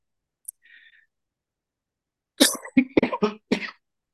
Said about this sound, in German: Entschuldigung. Ja, du hustest gerade. Gehört ja jetzt zu den Emotionen dazu, ne?